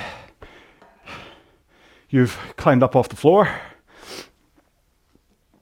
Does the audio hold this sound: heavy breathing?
yes